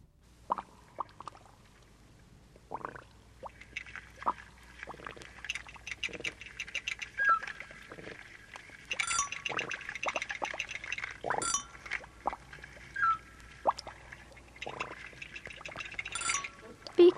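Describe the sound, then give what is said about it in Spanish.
Playful watery sound effects in a song: quick drips, plops and splashy bursts pop up again and again in a bouncy rhythm over light music, with a voice joining in partway through. “Pues para la UNICEF, una canción con hartos ruiditos de agua.”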